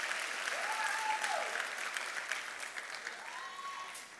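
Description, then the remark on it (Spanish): A church audience stands and applauds the Heavenly Father, dense clapping going on for several seconds at a sustained, fairly loud level, with faint tonal sweeps drifting over the top. “Denle un aplauso al Padre Celestial y pónganse de pie.”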